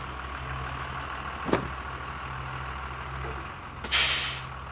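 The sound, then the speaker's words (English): A bus pulls over to the side of a road, idling with a low, steady engine rumble; a sharp hiss cuts in briefly, then a loud burst of air brakes releases near the end and fades out. No one speaks. “So Mary pulled over to the side of the road to tear the sign down.”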